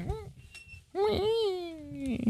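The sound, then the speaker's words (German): A squeaky microphone boom arm in a radio studio, in need of greasing, creaks twice, first a short whine and then a longer, wavering squeal that bends in pitch. “Das ist nur der Mikroarm. Ja. Das ist, ja, die gehört wieder mal geschmiert, glaube ich.”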